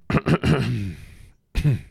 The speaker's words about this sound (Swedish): Hostar, harklar till.